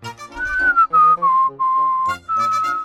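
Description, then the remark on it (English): A person whistles a short, steady tune of several sustained notes, each held briefly before shifting pitch, clear with no talking. “What is … doing? He is watching and whistling.”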